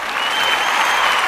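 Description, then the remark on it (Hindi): Loud, continuous applause from a crowd welcoming actor Chirag Bansal as a guest, a dense steady clatter of many hands clapping at once, without any talking over it. “जोरदार तालियों के साथ स्वागत किया जाएगा भाई”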